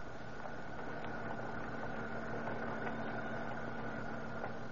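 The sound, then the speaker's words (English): A roadster's engine idles steadily throughout at the city dump on the eastern limits of Huntington Beach, in fog, a low continuous rumble with a faint mechanical whine and slight rattling texture, even in loudness, with no voices. “Kill your motor and we'll get busy.”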